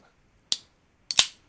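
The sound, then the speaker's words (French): A can of iced herbal tea is opened: a sharp metallic click, a short pause, then a second click and a quick fizzing pop of released pressure, with no talking. “Fait que je vais prendre ma petite tisane glacée”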